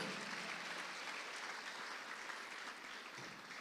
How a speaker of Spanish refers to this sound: Dele palmas fuerte al Rey de la Gloria.